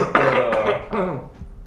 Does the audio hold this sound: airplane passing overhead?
no